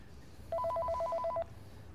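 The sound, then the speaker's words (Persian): A telephone rings with a rapid electronic warble, two alternating tones trilling quickly for about one second, loud against a low steady background rumble, with no voices. “انتظار داری در غمبارترین شب زندگیم تلفن جواب بدم”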